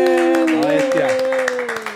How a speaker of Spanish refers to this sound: Corillo, fuerte el aplauso para Mikey Baxter